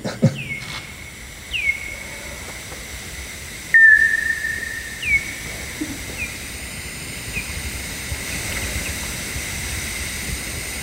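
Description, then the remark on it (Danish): Bat echolocation calls played through a bat detector: a slow series of short, downward-sweeping chirps spaced roughly a second apart, over a steady hiss, with one louder call partway through. “Øh, den skriger med en lidt lavere frekvens, og der er længere imellem skrigene.”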